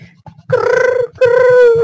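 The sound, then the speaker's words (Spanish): A person imitates a pigeon's cooing, making two drawn-out, throaty coos separated by a brief pause, with a low pulsing rumble underneath. “Amigo, soy una paloma.”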